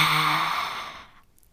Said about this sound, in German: Die Löwenatmung, vielleicht kennst du sie. Dafür wird jetzt für die Ausatmung, machst du den Mund ganz, ganz weit auf. Und wenn du willst, streckst du die Zunge noch richtig raus, wie so ein Löwe. Und da kann man noch so einen Sound dazu machen.